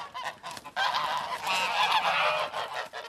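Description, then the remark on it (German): Several geese honk in a noisy, overlapping chorus, their harsh nasal calls rising and falling continuously with no pauses. “Anhängliche Gänse, das Bedürfnis nach Bindung und das sich wohlfühlen mit einem Partner, das empfinden auch Gänse.”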